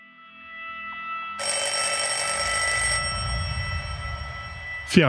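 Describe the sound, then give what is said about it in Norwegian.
An old-fashioned telephone bell rings loudly and clearly for a couple of seconds in Wilhelm Munte's office in December 1942, then trails off into a lingering hum, with no one talking. “desember 1942 ringte telefonen på Wilhelm Muntes kontor.”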